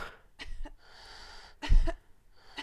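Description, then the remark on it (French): Muffled coughing into an elbow: two short, soft coughs, then a louder, heavier double cough after a pause, with no one talking. “Tousse-moi dans le coude. Oh oui, encore.”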